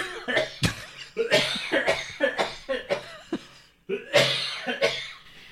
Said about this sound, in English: Let's do the whole thing where we're whispering. That way I won't cough anymore.